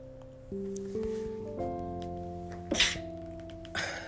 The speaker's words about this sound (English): Excuse me there. I just had to sneeze.